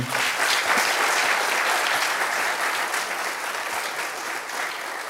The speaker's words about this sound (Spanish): Un aplauso